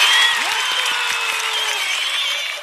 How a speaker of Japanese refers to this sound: 拍手もしちゃうよ。パチパチパチパチパチ。